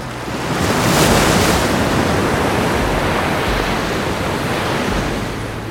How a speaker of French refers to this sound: Alors que l'océan se reforme dans un fracas total, Justine Dupont est toujours debout, le sourire relève. Elle vient de surfer une vague de près de 22 mètres, la plus grosse de toute sa carrière.